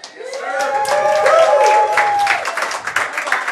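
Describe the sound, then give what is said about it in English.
A large live audience at the Double Eagle Clubhouse Grill in Dane bursts into sustained applause during a live show broadcast, dense rapid clapping with high whoops and cheers riding on top, staying loud for a few seconds before starting to thin out. “This has to be the largest crowd that we've ever had for a standard show, not just like a special with uh, lots of teams, but uh, give a shout out. Big crowd out there.”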